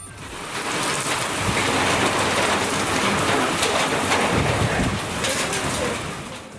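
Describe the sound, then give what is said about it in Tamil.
A heavy hailstorm in the Rasipuram and Hosur areas of Tamil Nadu, India, pours down steadily, a dense, loud roar of rain and hail with scattered sharper impacts, continuous from start to finish. “ராசிபுரம் ஹொசூர் உள்ளிட்ட பகுதிகளில் ஆலங்கட்டி மழை”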